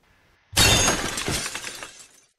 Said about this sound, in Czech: Takže já jsem následně dostal auto do stromu a zdemoloval si zadní světlo.